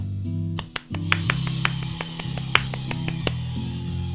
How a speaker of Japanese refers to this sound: はいちょっとねこの拍手少し小さめの音にしてみました